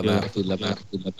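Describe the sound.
A voice on a call says one word several times in quick succession, each repeat arriving like an echo of the last, a rapid stuttering series of similar voiced bursts.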